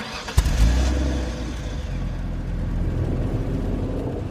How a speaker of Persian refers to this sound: ماشین رو روشن کردم و راه افتادیم